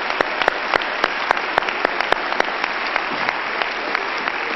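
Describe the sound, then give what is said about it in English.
An audience claps their hands to the Lord in a dense, steady burst of applause, with many sharp individual claps standing out over the wash of the crowd. “Let's clap our hands to the Lord, shall we?”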